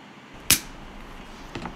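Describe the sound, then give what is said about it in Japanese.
A sharp, breathy pssht as a plastic bottle of carbonated juice is cracked open, followed a second later by a softer, shorter hiss of escaping gas, with no talking. “あこれあれですあれですあのペットボトルのジュースを開ける時の音炭酸わかりますかねこれちょっとプシュっていうあの音ですね”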